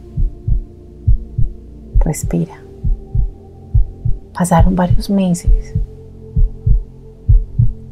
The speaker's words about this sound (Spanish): Ahí escuchando los latidos de tu corazón, respira.